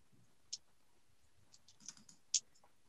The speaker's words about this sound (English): I get to do that thing where I roll a bunch of dice at once and make a loud, loud sounds doing it.